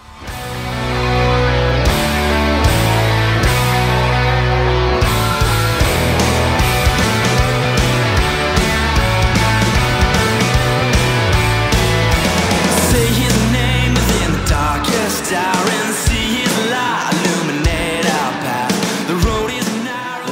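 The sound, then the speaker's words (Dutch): A song played live by a full band at a concert in Miami, loud and dense with steady bass, driving rhythm and bright layered instruments throughout, a crowd-filled concert sound with no speech over it. “Ook vervolgens weer live in Miami gedaan.”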